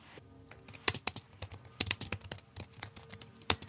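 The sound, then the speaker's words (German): Rapid, irregular clicking of keys on a computer keyboard, with a few sharper, louder keystrokes standing out from the steady patter; no voices. “Die das, Tastatur.”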